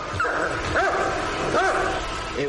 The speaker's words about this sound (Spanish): El perro estaba asustado.